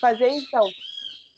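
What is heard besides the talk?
bird singing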